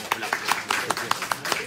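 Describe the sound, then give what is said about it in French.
Brisk, steady hand clapping at an evening gathering in Israel: about nine sharp, crisp claps in quick, even rhythm, fairly loud, with no one speaking over them. “Je vais quand même l'applaudir.”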